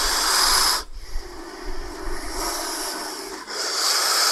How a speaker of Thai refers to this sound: ในกรณีที่งูส่งเสียงเนี่ยมันเป็นสัญญาณบอกยกตัวอย่างเช่น คู ก็คือหายใจเข้าไปเต็มปอด แล้วค่อยๆพ่นลมหายใจออกมาให้ผ่านช่องว่างในหัวกะโหลก